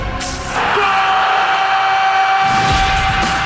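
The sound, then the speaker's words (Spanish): A loud, drawn-out goal cry at a football game played among vineyards and irrigation ditches holds one strained pitch for about three seconds, forceful, over a rough, noisy background. “Mientras el grito de gol está ahí entre acequia y acequia.”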